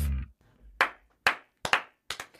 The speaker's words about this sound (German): hier, das hast du vergessen, Digga, zu klatschen. Das klatschen ne? Ja, ja ich habe angefangen.